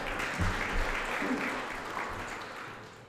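An audience breaks into steady applause for a person who raised a hand to speak about the gospel, a dense wash of many hands clapping that stays loud for a few seconds and then begins to thin and fade.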